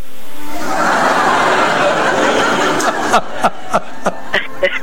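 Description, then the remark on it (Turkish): A burst of canned audience laughter, a sound effect, swells loudly, then thins out into scattered sharp claps or clicks over the last couple of seconds. “Bak gülme efekti verdi.”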